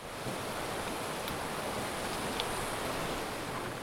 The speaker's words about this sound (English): That is the sound of the so called Rio Savegre, a huge river not far from Quepos, a city at the Pacific side of Costa Rica. And this river could be dammed pretty soon.